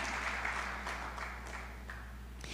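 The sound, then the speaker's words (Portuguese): An audience applauding for Jesus, a dense, steady wash of many hands clapping that holds evenly for a couple of seconds at a moderate-to-soft level, with no voices on top. “Você pode dar uma salva de palmas a Jesus, porque Ele está aqui e Ele é bom?”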